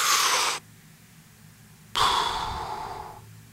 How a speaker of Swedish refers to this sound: Och den här kan man göra ett par gånger. Första gången så kanske man andas så här.